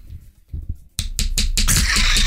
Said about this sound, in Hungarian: De hogyha megkopogtatod, akkor tudod kopogtatni a szemedet.